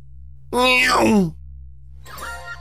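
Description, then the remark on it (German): A voice imitates a Formula 1 car zooming past: one loud, strained whine that sweeps downward in pitch, then a quieter, shorter vocal sound over a steady low hum. “Also, dein erstes Geräusch ist Formel 1 Wagen.”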